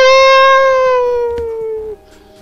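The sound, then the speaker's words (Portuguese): A person imitates the Big Bad Wolf with a wolf's howl: one loud, sustained, nasal tone held for about two seconds, sliding slowly downward before breaking off abruptly, with no talking around it. “vou ter que imitar o nosso Lobo Mal de novo.”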